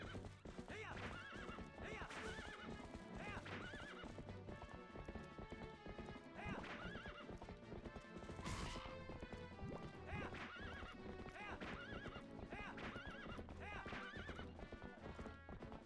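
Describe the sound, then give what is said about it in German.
A horse gallops with steady, rapid hoofbeats and lets out loud whinnies, set against a dense, busy game soundtrack that plays throughout. “Baby am Rennen.”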